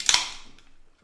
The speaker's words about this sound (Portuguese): E antes de começar, então, eu quero fazer um brinde. Né? Então vamos brindar aqui. Um brinde.